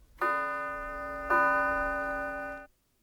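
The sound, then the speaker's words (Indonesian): A clock's bell strikes two o'clock: two clear ringing bell tones about a second apart, one stroke per hour, each with a bright attack and a sustained decaying ring, with no talking. “Oh ya, bunyi lonceng yang saudara dengar adalah bunyi jam kami di sini.”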